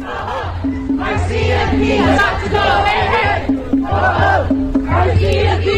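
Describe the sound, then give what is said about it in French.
A large protest crowd at a demonstration in Vancouver chants together in loud, rhythmic bursts, many voices shouting in unison over a steady low rumble, with a repeating cadence throughout. “que vous pouvez entendre en ce moment, en fait, c'est un tweet d'une personne qui était à la manifestation à, Vancouver.”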